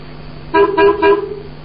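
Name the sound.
car horn honking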